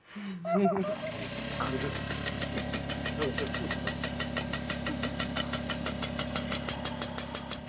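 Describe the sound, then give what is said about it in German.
A respiratory therapy machine, used to shake a boy's lungs, starts up after a brief voice, then runs steadily with a loud, rapid pulsing buzz, its regular beats repeating for several seconds. “muss sie mit einer Maschine sozusagen durchgerüttelt werden.”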